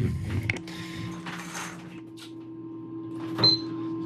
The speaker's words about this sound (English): That beep is the timer.